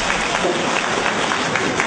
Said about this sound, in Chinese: 我还没没说的，大家就鼓掌，说明你提的问题吧，太精彩了啊！